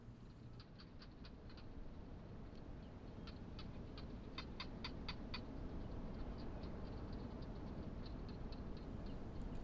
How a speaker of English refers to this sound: In this practice, we have landed in the Kalahari Desert of South Africa in the evening. You can hear the winds blowing and the quiet call of the barking gecko.